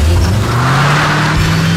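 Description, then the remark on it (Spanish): A car engine revs up loudly, its low drone climbing steadily in pitch as the vehicle accelerates over a couple of seconds, with no voices. “Ese sonido que te lleva a todas partes, también está Salfa”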